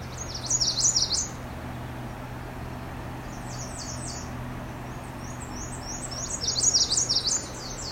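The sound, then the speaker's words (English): A redstart sings loud, high, rapid chirping phrases in two bursts near the start and end, with softer calls between over a steady low outdoor hum. “very loud red starts here.”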